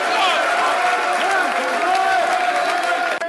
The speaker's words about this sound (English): Nice to see him back. Good applause to Tomelia.